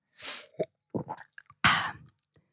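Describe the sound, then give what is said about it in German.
Wet mouth noises: a few short lip smacks and clicks, then a louder slurping sip of a drink, followed by faint smacks. No talking. “Ähm, ich trinke, äh, merkt ihr, ich schmatze schon wieder, weil ich ja, einen Schluck nehme.”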